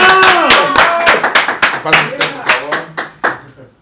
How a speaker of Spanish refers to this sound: ¡Venga, aplausos!